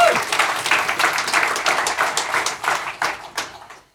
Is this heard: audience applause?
yes